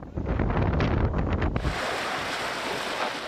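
Strong wind from a storm in Turkey buffets the microphone with a deep rumble, then gives way to a steady, loud wash of crashing surf. No voices, just continuous roaring noise throughout.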